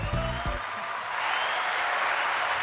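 Hand clapping: two sharp claps over a brief low vocal sound at the start, then a steady, dense patter of clapping that continues evenly to the end.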